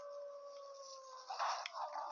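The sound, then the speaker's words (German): Wolves howling in long, sustained overlapping tones that hold steady and waver slightly, with a brief rougher burst of noise partway through. “Ach, jetzt scheiße, hier sind Wölfe.”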